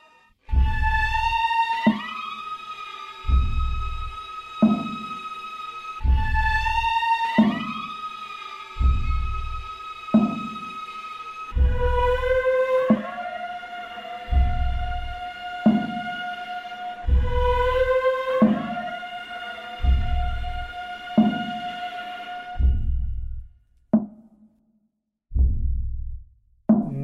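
Eerie film score from a film starring Scarlett Johansson, with warped, distorted violins that slide and bend in pitch, layered over a steady, heartbeat-like low throb repeating every second or so, with no voices.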